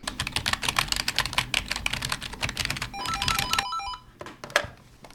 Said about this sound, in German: in der Online-Redaktion, fliegen die Finger nur so über die Tastatur